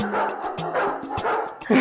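A dog barks several times in quick succession, loud, with short yips between the barks and a sharper, louder bark at the very end.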